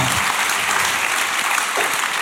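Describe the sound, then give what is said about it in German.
A crowd claps loudly and steadily, a dense wash of many hands applauding at once with no pauses, sustained for the whole stretch without any voices standing out. “Ihr seid ja nicht nur unfassbar schön, ihr seid ja auch sehr laut.”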